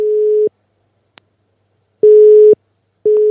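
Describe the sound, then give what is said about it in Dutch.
A telephone busy signal heard while placing a phone call: steady low tone beeps in a repeating on-off pattern, loud, with a short click between the first and second beeps and no one speaking. “Is, ze eh, in gesprek? Ze is in gesprek.”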